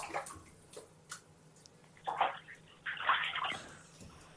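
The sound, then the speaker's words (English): A man in a bath makes intermittent water splashing and sloshing, with short bursts and a couple of louder swishes, plus faint drips in between. No one speaks. “if you just if you just quiet, we can just listen to him in the bath.”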